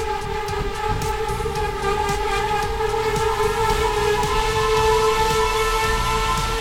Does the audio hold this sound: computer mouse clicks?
no